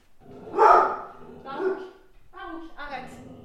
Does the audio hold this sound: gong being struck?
no